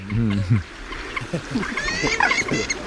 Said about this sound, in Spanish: Este gruñido es el calamón, que es un, una especie de pavo de color púrpura y patas rojas.